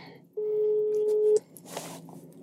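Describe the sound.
A telephone ringing tone sounds while a call connects: one steady, clear beep lasting about a second, followed by a short pause with faint background voices and rustling.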